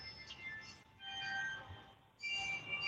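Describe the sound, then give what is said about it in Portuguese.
A faint chime-like melody coming from a building plays in bright, slightly off-pitch, clock-like tones, a few notes at a time with brief pauses between phrases, over low background rumble and no talking. “Porque ela é uma música meio desafinada, que ela é, parece coisa é. de relógio.”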